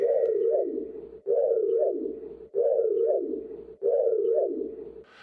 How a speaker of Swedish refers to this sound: Det hör väl alla att det är ljudet av Knight Riders bils sån scanner. Du vet, Knight Rider har en bil som kan prata och tänka och den har en, en scanner där fram som låter så här.